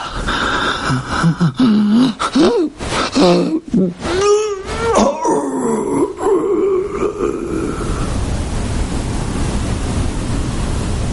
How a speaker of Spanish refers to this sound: William expulsa su último aliento de vida mientras su hijo permanece dándole la mano junto a su cama